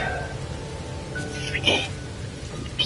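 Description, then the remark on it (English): Steady video game rain that burns the player hisses in a dense, continuous wash, with a few brief brighter blips and chirps cutting through near the middle and end. “back to, you know, getting burnt up by this bastard rain.”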